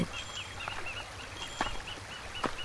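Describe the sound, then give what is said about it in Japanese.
Birds call repeatedly from somewhere out of sight in the evening along a narrow wooded path in Kamikochi, Nagano Prefecture, Japan: short high chirps and whistles scattered over a quiet outdoor hush, with a few faint sharp clicks in between and no talking. “今は夕方で鳥が姿を見せずに鳴いている”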